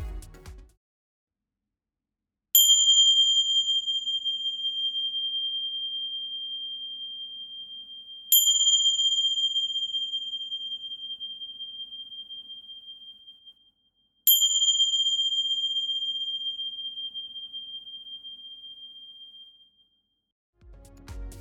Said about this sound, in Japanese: そして最後にティンシャ。